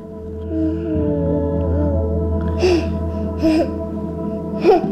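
A one-year-old baby whimpers softly and continuously, breaking into three sharp, breathy gasps near the end, fairly loud against a low steady background hum.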